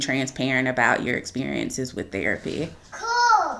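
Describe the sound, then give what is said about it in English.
An adult talks steadily while a young child babbles in the background, ending with a short, high-pitched vocal burst from the child after the speech pauses. “Um, and you may hear my little one in the background.”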